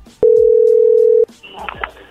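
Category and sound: signal or alarm, telephone dialing tones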